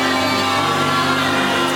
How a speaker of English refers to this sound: This is a shouting service, really. This is just a shouting service. Glory to God.